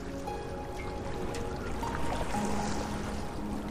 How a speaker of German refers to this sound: Rechts von dir siehst du das tiefblaue Meereswasser, das sanft gegen die Felsen schwappt.